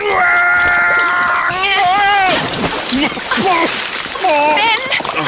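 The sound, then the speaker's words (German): Someone slips and lands in knee-deep rising water with a loud splash while pulling, followed by continued sloshing and splatter while voices cry out and exclaim over it. “Ja, ich bin nur abgerutscht und im Wasser gelandet.”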